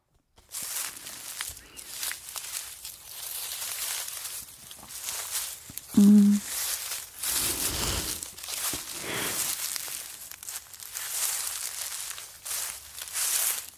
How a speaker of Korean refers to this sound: 정답은 2번 낙엽 밟는 소리였습니다